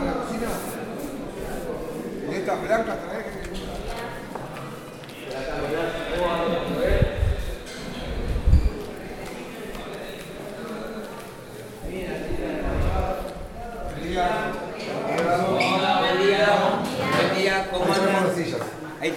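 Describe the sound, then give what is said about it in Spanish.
Chairs clatter and thump as they are carried and set down for a radio program at the Centro Universitario de Devoto, Buenos Aires, Argentina, with a few heavier knocks standing out amid shuffling and scraping, while people talk in the background. “Llevamos la silla y vamos para allá.”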